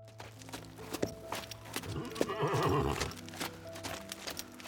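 A horse whinnies loudly with a wavering, drawn-out neigh in the middle, while hooves clip-clop steadily on a hard surface before and after, without any talking.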